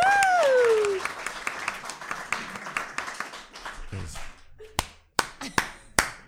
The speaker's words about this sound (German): Erstmal großen Applaus an euch, dass ihr heute alle da seid. Ich freue mich mega.